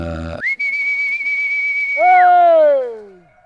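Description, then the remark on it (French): A shepherd's whistle calling his dogs: one long, steady, high note held for nearly two seconds, then a lower, fuller whistled note that slides downward and fades. Loud and alone, with no talking. “un, berger ou un paysan appeler ses chers ou ses chiens.”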